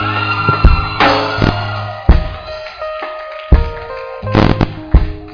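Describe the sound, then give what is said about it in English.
A church audience shouts unto God during a morning service, loudly and continuously, a dense, distorted roar of many voices punctuated by sharp bursts and bangs, lasting several seconds. “the way you shouted”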